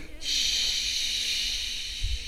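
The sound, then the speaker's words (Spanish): A voice makes one long, steady breathy 'shhh' hiss, imitating waves going back and forth and hitting the shore. It is even, lasting about two seconds with no talking. “que va y vuelve, ¿no? Ese y el cuando pega en la costa o en el borde.”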